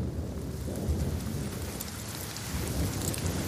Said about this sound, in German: Schwerer Regen hält die Männer tagelang im Basislager fest. Sie warten mit ihrem Aufbruch.